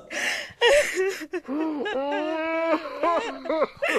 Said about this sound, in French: Oh merde, merde, merde, je me suis encore trompé, putain Ça c'est le cri de désespoir de David et Laura Hallyday qui ne toucheront rien comme d'hab.